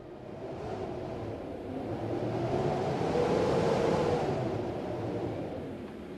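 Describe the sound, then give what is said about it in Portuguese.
A steady whoosh of wind, used as a sound effect to mark the passage of time, rushes on its own, swelling gradually toward the middle and easing off again, with a deep rumbling undertone and no voices. “a nossa passagem de tempo é o vento.”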